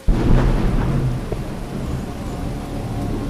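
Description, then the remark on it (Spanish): A low, rumbling roll of thunder over a steady hiss of rain, loud and continuous, with no voices. “Comenzaba ya a llover cuando llegó hasta la explanada de la Ermita de las Angustias.”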